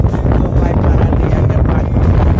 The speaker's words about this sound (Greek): Γιατί όχι, έχει το κλιματιστικό, τη βαράει και φυσάει το κλιματιστικό και δεν μπορούμε να ακούσουμε τι λέει στο μήνυμα.